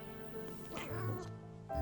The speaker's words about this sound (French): Le chat ronronnait doucement, profitant de ces moments si rares où son maître pouvait lui servir de canapé chaud et moelleux sans partir à l'aventure on ne sait où, loin de lui.